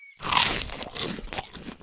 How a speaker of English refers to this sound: And how are you eating toast?